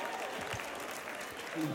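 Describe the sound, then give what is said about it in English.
A crowd of fans claps steadily in a dense, continuous wash of applause, with murmuring voices mixed underneath and a brief tonal rise near the end. “They're clapping, carrying on, and some are going to inter- intercessory prayer.”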